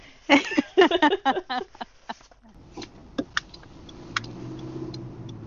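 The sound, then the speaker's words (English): A steady, low engine drone hums inside a car cabin, settling in after a brief burst of voices, with a few light clicks and taps over the continuous rumble. “Are Hi. you in the car? Sure am.”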